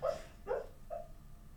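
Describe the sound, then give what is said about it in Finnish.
A sleeping dog whimpers and lets out soft, muffled barks while dreaming: three short, quiet yips spaced about half a second apart, with no one talking. “Mutta että siellä unessa Koira. haukutaan ja juostaan ja Juu.”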